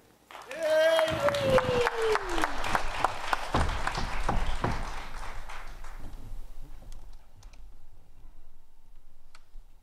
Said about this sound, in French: Mesdames et messieurs, applaudissez Étienne Dupuis.